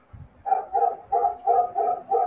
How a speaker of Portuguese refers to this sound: Mas uh, ouvindo aos cachorros de fundo de, de, alguma casa que eu não sei, a minha Aqui, não é. A minha. Tem uns cachorros aí, né?